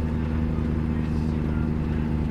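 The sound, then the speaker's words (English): A heavy truck engine pulling two trailers drones steadily and loudly under strain, its deep low rumble holding constant as it labors up a massive hill, continuous throughout. “Well, I don't think we all can hear it because of the engine.”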